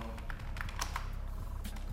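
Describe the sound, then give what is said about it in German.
Several quick keyboard keystrokes clatter at an uneven typing pace over a low background hum, each tap short and crisp, as the search term "Kupferstich, Passau" is typed in. “Wenn wir jetzt zum Beispiel hier eingeben, Kupferstich, Passau,”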